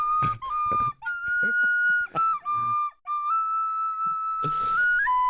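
A nose flute plays a wavering, whistle-like melody of sustained pure tones that slide between pitches, broken by a few short breathy pauses and ending in a rising, airy squeal.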